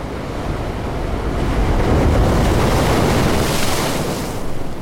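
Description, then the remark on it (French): A single ocean wave swells and washes through in a broad, steady rush of surf, the sound sweeping and shifting as the microphone is moved, giving a Doppler-like effect, with wind buffeting the microphone underneath. “Et donc je ne sais pas si on peut entendre, mais ça c'est ça, c'est une vague.”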